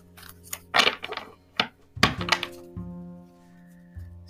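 A deck of tarot cards being shuffled: irregular bursts of papery rustling and soft slaps, then a quieter stretch with a low steady hum underneath.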